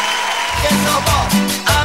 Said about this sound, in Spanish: Un aplauso para los amigos de Cero Dieta.